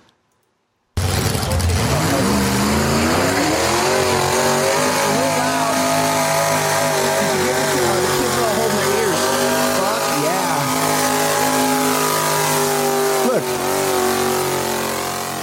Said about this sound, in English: Okay, let's let's let's watch the tractor pull.